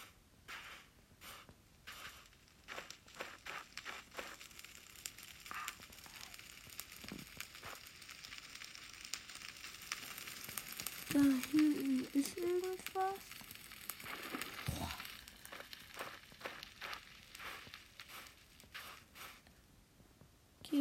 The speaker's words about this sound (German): Hier ist Feuer.